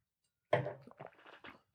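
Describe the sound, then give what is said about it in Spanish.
Mouth sounds of someone taking a deep gulp of wine, a sudden wet swallow followed by a few shorter gulping and smacking noises, heard alone after a brief silence. “Esto es un trago profundo.”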